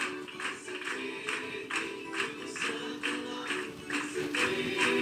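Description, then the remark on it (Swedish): A group of about 150 young people at a Christian camp claps hands in a steady, quick rhythm in a chapel, about two claps per second, as they gather to sing, with sustained singing or music humming underneath throughout. “De är hängivna i sitt klappande, kan man säga. De älskar att klappa händer.”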